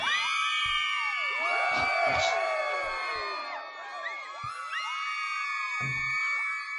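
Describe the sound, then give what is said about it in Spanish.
A dense crowd cheers and screams continuously as a celebration sound effect, with high-pitched shrieks and whoops layered over a roaring mass of voices and a few sharp thumps, loud and sustained throughout. “Pongámosle algo de celebración, va.”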